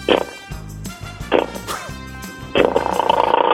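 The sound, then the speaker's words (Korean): A man's voice imitates a city-bike motorcycle engine in a voice-impression segment on Park Myung-soo's Radio Show, giving a few short revving bursts over a low sputtering rumble, then breaking into a louder, sustained raspy roar that runs to the end. “오토바이 한번 소리 내볼게요.”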